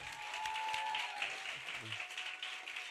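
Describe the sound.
Steady applause from a small group in a radio studio, welcoming the guest Ignacio Farray: a dense crackle of clapping hands that holds at an even level for the full three seconds, with faint voices mixed in.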